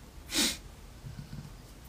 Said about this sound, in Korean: 하품이죠? 아니 입 벌리기 운동. 뇌 산소 공급.